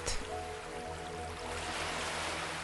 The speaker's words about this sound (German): Visualisiere nun einen wunderschönen Küstenort wo das Meer sanft an den Sandstrand brandet.